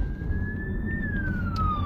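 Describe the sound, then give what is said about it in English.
An ambulance siren wails loudly over steady road rumble, heard from inside a car, its pitch rising slightly and then sliding down as it passes. “Oh, here comes an ambulance.”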